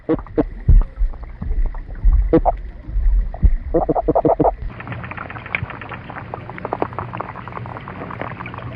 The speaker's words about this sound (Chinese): 我们接下来听一下我们熟悉的鱼类的声音。虽然我们不能常常听到它们，但事实上很多海洋动物都能发声。比如鱼类就能使用鱼鳔的震动或者胸鳍的棘刺而发出低沉的声音。